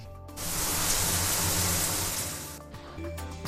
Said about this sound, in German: So, jetzt geht's gleich unter die Dusche. Ich habe einen Sparduschkopf.